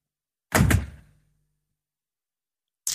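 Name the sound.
door closing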